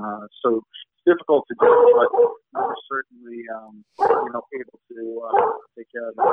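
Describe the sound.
A female Labrador watchdog barks a few times while a man keeps talking over it. The barks are short and partly masked by his voice.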